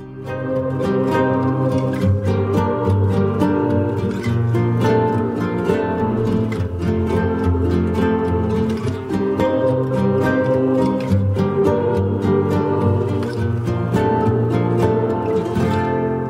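A full, steady song with male and female vocals plays loudly and continuously, with rich sustained instrumentation and rhythmic accents throughout, and no talking over it.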